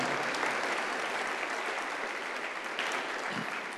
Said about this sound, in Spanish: De un aplauso al Señor como afirmación de esa palabra profética.